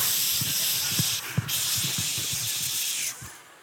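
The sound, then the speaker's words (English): Loud, steady hiss of bear spray blasting from a canister, with a brief pause partway through before it cuts off abruptly, soft low thuds sounding underneath. “If a bear comes sneak up on you, how many of you just grabbing that spray?”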